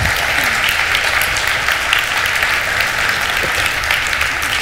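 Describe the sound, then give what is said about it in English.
An audience claps steadily for a group of girls, a dense, sustained wash of many hands at an even loudness throughout, with no voices standing out above it. “Hey, let's give them a, of applause.”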